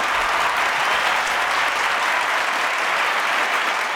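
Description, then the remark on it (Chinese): A sustained applause sound effect played by pressing a button, a dense wash of many hands clapping at constant loudness for the full four seconds with no voices over it. “那个掌声有点久，这样。”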